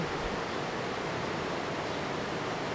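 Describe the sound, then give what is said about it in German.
A steady, full-band rush of water roars continuously without pause, like a swollen river or waterfall, dense and even in loudness throughout. “Hat ganz schön viel Wasser im Moment.”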